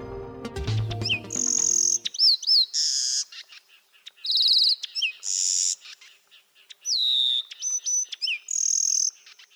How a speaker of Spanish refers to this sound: Este es el trino del cucarachero sabanero, que pese a su nombre se distribuye desde Canadá hasta Tierra del Fuego y hasta en las islas del Atlántico Sur. Mide máximo 11 centímetros. Es de color pardo con el dorso estriado y las alas barradas.